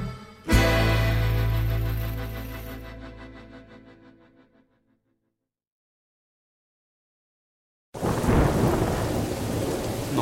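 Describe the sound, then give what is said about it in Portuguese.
A loud thunderclap cracks and rumbles away over a few seconds, followed by a brief silence and then steady, heavy rain pouring down. “Nossa, amor, essa tempestade horrível e você aí nessa calmaria.”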